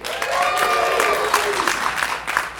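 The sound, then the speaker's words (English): A crowd bursts into steady, dense applause lasting a couple of seconds, with crisp individual claps and faint cheering voices blended into the noise, applauding Vincent Price, star of House of Wax in 3D. “Let's hear it for Vincent Price.”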